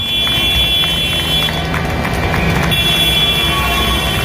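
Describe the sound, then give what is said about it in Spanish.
Citizens in central Barcelona clap steadily as hundreds of tractors of protesting farm workers occupy the city's avenues, over a low engine rumble, with a sustained high horn-like tone running through it, loud and continuous throughout. “Cientos de tractores, hasta 2.000, según la Unión de Payesus, ocuparon la Diagonal, la Avenida Meridiana o la Gran Vía de la ciudad, mientras muchos ciudadanos, lo escuchábamos ahora, les recibía con aplausos.”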